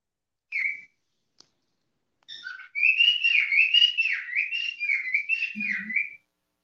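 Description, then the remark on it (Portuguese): A pet bird named Seu Caló sings on its own: a short chirp, then about four seconds of continuous, fairly loud warbling song that dips and rises in pitch with rapid trills and whistles. “Tem hora que ele canta mais fino, tem hora que ele canta mais grosso.”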